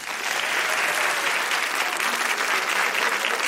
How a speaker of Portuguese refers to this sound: Aplausos para as mamães!